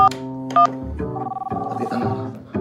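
Two short, bright keypad beeps from a phone being dialed, pressing 1 and 8, spaced about half a second apart, followed by a steady, warbling tonal drone that continues to the end.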